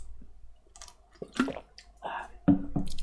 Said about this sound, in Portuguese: Peraí, deixa eu tomar água aqui.